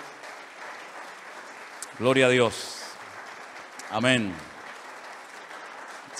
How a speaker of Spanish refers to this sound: Yo quiero que las dos pasen un segundito aquí porque hay mucha familia que están en casa esperando este momento. Las recibimos con un fuerte aplauso a ellas, por favor.